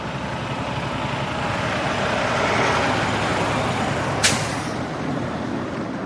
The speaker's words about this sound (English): So when you have the rail car, the rail car pieces, the guard tower, and all the support equipment, we had a convoy of about 12 semi trucks traveling down the road across six states to get here.